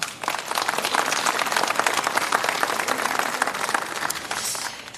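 An audience applauds steadily at Deutschlandfunk Kultur's Das blaue Sofa, welcoming Austrian author Thomas Stangl. A dense wash of many hands clapping at an even volume lasts about five seconds before tapering slightly at the end.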